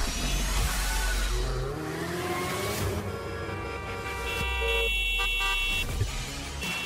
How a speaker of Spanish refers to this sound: El claxon en tu auto es solo para una emergencia, no para faltar al respeto a los demás.